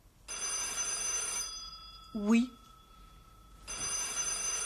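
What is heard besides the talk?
telephone bell ringing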